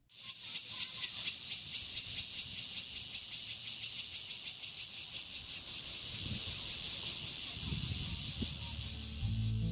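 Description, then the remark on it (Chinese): A Takasago cicada calls loudly in a harsh, high-pitched buzz broken into rapid, regular pulses, about four per second, holding steady for the whole stretch with no voices. “它是高沙熊蝉，我们就打铁趁热哦，来听听看高沙熊蝉的声音吧。”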